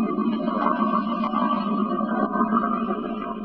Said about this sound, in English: lava tubes deep underground burble and flow, the Infrasound Laboratory of the University of Hawaii records the sounds of this activity from volcanoes like Kilauea. They speed up and magnify the low frequency recordings so we can hear them.